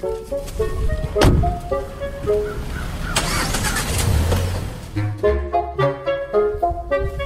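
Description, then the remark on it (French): A car door thunks, then an engine starts up and the car pulls away from a snowbank in Montreal, headed to Rosemont, all mixed under a bouncy, upbeat music track that carries on throughout. “On s'en va à Rosemont, puis il n'y a pas de ligne rose, alors faut prendre mon auto.”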